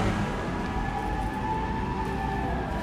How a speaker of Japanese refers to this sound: なんかやたらさっきからいろいろ救急車とかパトカーとかなんですかねわーわーわーわーあれしてますね